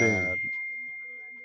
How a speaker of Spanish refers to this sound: Eh, silencie su celular, gracias.